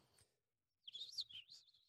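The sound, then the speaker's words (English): A high-pitched whistling chirp sound effect, standing for a man's scrotum left whistling after a surgery gone wrong, warbles and wavers for about a second, bright, following a brief soft rustle and a moment of silence. “um, a man in the U.S. was left with a whistling scrotum Do after an operation went wrong.”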